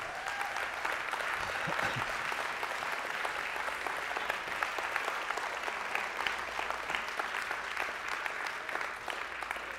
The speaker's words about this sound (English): so, like we're, we say, bravo, good word. Oh, Lord, you're awesome. And to us, that's what we're doing. But what the enemy does, he put clutches his hands over us. He hates our applause and our praise to the Lord our God.